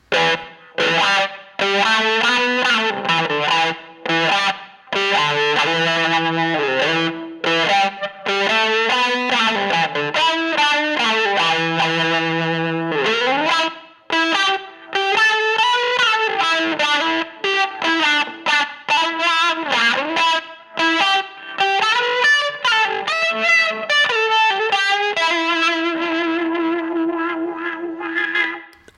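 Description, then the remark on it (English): An electric guitar through a Rush Pepbox, one of the earliest fuzz pedals, plays a loud, buzzy improvised melodic phrase with bending notes and a Valhalla Room plug-in reverb tail, ending on a long sustained note. No one speaks. “I'll discuss the Rush Pepbox, one of the earliest fuzz pedals made.”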